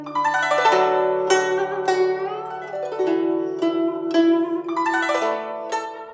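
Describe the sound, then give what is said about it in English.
A plucked 21-string zither ripples through cascading glissandi and rapid tremolo notes, imitating flowing water, bright overlapping strings rising and falling in continuous waves like a stream, played alone with sustained low notes beneath. “Some examples are like bird like chirps made by the Chinese flute, imitations of flowing water by the 21 string zither,”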